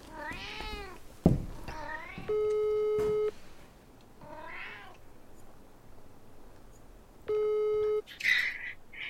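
A phone's ringing tone of an outgoing call placed through the Siri voice assistant sounds twice, each a steady electronic buzz about a second long with a long pause between, while a cat meows repeatedly in the foreground.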